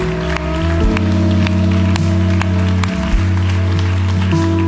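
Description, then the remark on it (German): A church audience applauds those who have just made a decision, a steady, dense wash of clapping that runs the whole time alongside sustained, droning keyboard chords that shift pitch a few times. “Komm Gemeinde, lass uns auch jedem, der gerade diese Entscheidung getroffen hat, einen großen Applaus geben, denn es ist ein Grund zum Feiern.”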